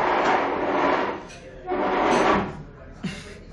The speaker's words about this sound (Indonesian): ada yang geser kursi barusan.